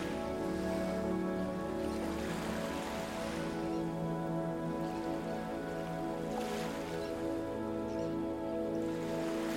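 Soft water lapping in a slow, steady rhythm, with gentle swells rising around a few seconds apart over a continuous low hum, small waves splashing against the bow of a sailing boat moving steadily forward. No voices.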